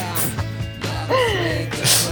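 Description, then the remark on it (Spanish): A voice mimics an inhaler puff with short, breathy hissing bursts and a sharp intake of air, mixed with a brief voiced sound in the middle. “es lo mismo que darse un puff.”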